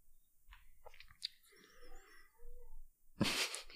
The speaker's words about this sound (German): Ach hm, man hört wieder meine Katze im Hintergrund, aber das macht ja jetzt nichts.